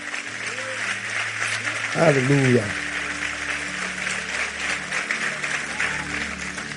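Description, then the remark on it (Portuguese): At the close of a church service, an audience applauds steadily for several seconds, a dense wash of clapping, while a man's voice calls out briefly and a soft sustained keyboard chord hums underneath. “Aplauda ele e vamos embora para casa.”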